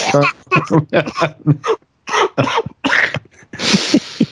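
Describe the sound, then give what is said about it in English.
A man with COVID coughs in a run of short, harsh bursts, fairly loud, with brief pauses between fits and a rougher, breathier cough near the end. “Let's laugh at him coughing.”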